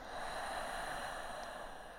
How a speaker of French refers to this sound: Asseyez-vous et prenez une profonde respiration. Inspiration profonde et profonde expiration.